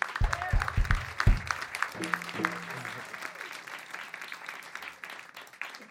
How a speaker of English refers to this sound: Can we just please give Kojin and Eric in the booth a round of applause for the sound today?